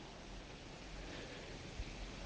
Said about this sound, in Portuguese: Aqui onde eu moro, o vento passa nas plantas e faz esse barulho muito gostoso muitas vezes a gente até esquece dele, né?